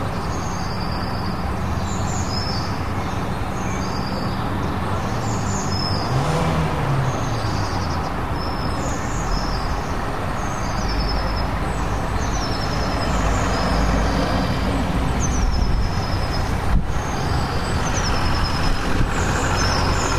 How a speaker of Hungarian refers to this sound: Szóval itt vagyok a nyitott ablaknál, valószínűleg a zúgásokat már halljátok, mert hát autók azért, azért közlekednek, de megmutatom, hogy mi az, amit hallunk így napközben